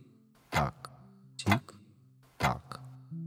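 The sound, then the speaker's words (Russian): A clock ticks steadily, three crisp ticks about a second apart, each followed by a softer click, over a faint low hum with no one speaking. “Тик-так, тик”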